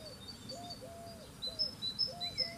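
Birds sing in a garden: a string of repeated, slurred whistling notes overlapped by higher, thin chirps from other birds, fairly soft, with no one talking.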